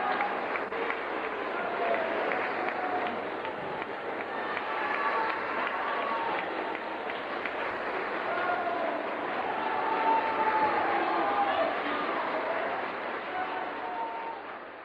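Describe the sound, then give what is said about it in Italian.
Sustained applause from a large opera audience in a theater for Ettore Bastianini, a dense steady wash of clapping at even loudness throughout, with scattered faint voices and brief tonal calls rising above the crowd. “Sto lasciando scorrere gli applausi perché non sono mai troppi.”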